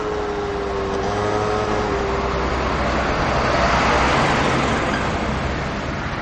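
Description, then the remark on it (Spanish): A motorcycle engine rumbles against steady road noise as the rider arrives and parks beside the entrance of a house, its droning tone fading out partway through while a broad traffic hiss carries on. “El amigo llega subido en una moto y aparca junto a la entrada de la vivienda.”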